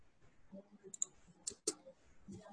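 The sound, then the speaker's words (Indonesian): A handful of sharp, fairly crisp computer keyboard keystrokes, spaced irregularly over a couple of seconds, as someone presses Ctrl+F and types the word "tentang", with faint low murmuring underneath. “Misalkan nanti di sini kita kontrol F, kemudian kita ketik tentang.”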